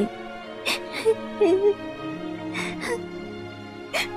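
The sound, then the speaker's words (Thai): A voice acts out the real bride sobbing and crying in a told story: wavering, whimpering tones broken by about five sharp, breathy gasps, at moderate loudness. “เจ้าสาวตัวจริงได้สะอึกสะอื้นแล้วก็ร้องไห้”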